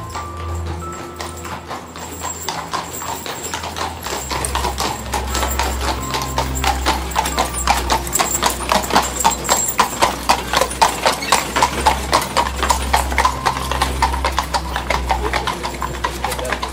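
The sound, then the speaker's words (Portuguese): Horses pulling a chariot pound in a fast, steady gallop after being whipped, the clatter growing louder and more distinct over a low rumbling background, with no voices present. “Depois amarrou as rédeas nos pés do homem, chicoteou os cavalos e fez com que os animais arrastassem até a morte.”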